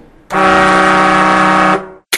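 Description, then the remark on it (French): A single loud horn blast, signalling that one minute remains before the closing credits, holds one steady, brassy tone for about a second and a half, starting and stopping abruptly, with no voices around it. “Sauf à une minute de la fin, vous allez entendre un petit klaxon au cas où on se serait perdu dans les explications”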